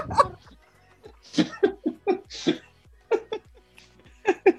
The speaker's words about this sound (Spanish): ¡Uy, un perro!